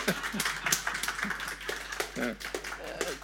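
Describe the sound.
An audience applauding a speaker as he is introduced, a steady patter of many hands clapping through the whole stretch, with voices speaking over the applause.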